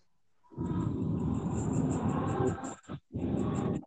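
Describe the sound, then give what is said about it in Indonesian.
A loud, deep engine rumble of a bus swells in, roaring steadily for a couple of seconds, briefly cutting out, then surging again as it passes. “tadi tuh bus”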